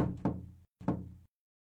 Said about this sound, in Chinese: 沈西嘟嘟囔囔，不情愿的去敲门。